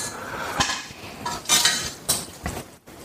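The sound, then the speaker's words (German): Metal cookware clanks and scrapes, a frying pan being set down to heat for shrimp with a few sharp knocks and rattles over about three seconds, no voices. “Deswegen kann ich dann, glaube ich, auch schon mal die Pfanne heiß machen für unsere Garnelen.”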